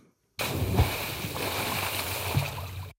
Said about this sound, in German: Ein Sprung ins kühle Wasser.